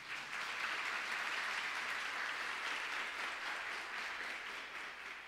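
A crowd applauds steadily for several seconds, a dense, even wash of many hands clapping with no voices standing out.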